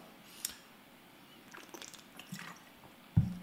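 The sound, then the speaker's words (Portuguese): Someone quietly sips water, with a few small wet slurps and liquid trickles spread over a few seconds, ending in a soft low thud. No one speaks. “preciso tomar uma água.”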